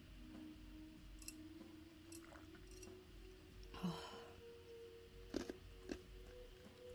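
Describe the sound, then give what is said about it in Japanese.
Ice cubes, already largely melted, being chewed: a few soft, wet crunches spaced out over several seconds against a quiet background hum, with no talking. “氷を噛む音ですだいぶ溶けちゃいましたけど”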